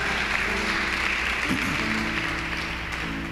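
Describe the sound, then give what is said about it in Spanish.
Steady, dense applause from a church audience giving a louder round of applause to the King (God), a continuous wash of many hands clapping at an even loudness throughout, with faint murmuring voices mixed in underneath. “A ver, esas estrellas le dan ese aplauso más fuerte al Rey.”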